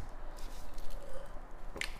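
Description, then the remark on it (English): Quiet drinking: soft wet sipping noises and a gulp near the end as someone swallows water, with no talking over it. “sorry, drinking water”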